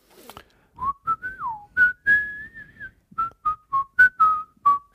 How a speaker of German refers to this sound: Nein, du kommst rein und pfeifst irgendwas wie so.